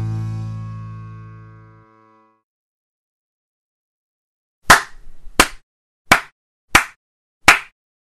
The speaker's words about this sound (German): Hast du uns gerade geslowclapped?